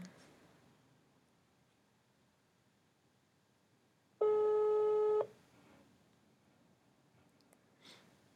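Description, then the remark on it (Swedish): A single loud ringback tone on an outgoing phone call sounds for about a second, a steady buzzing beep over a quiet background, with nobody speaking. “Eh, vi ringer ifrån Allt och lite till podden.”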